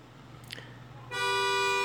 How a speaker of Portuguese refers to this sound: Olha só que barulho bonito de buzina.